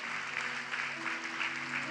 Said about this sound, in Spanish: Dale un aplauso fuerte a ese Rey de Reyes